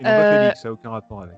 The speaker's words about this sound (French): c'est mon chat, ça. Euh, c'est Félix le chat.